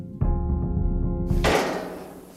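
A heavy metal door at the Max Planck Institute for Evolutionary Anthropology in Leipzig, leading to a plain room where fossils are stored, is unlocked: a solid clunk and a few metallic clicks over a low ringing hum, then a broad hissing scrape as the door swings open and fades.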